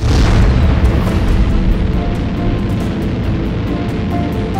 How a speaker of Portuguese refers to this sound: Explosão do terceiro protótipo do VLS-1, veículo lançador de satélites, no centro de lançamento de Alcântara, no Maranhão. As imagens foram registradas pelo circuito interno de TV da base de lançamento de Alcântara. Foi uma explosão forte